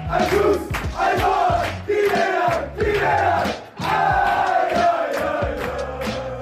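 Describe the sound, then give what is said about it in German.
A loud football stadium crowd chants in unison, many voices rising and falling in a steady rhythmic pattern of roughly one phrase per second, with a brief dip partway through before the chant resumes. “Wir waren beim Fußball.”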